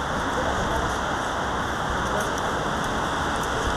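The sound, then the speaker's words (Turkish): Steady outdoor rain with a blustery wind rushing over it in cold weather at Bakırköy Square, Istanbul, Turkey, a dense, constant hiss that stays loud and even throughout, with no breaks or distinct individual drops. “Şu anda hava soğuk, rüzgarlı ve yağmurlu.”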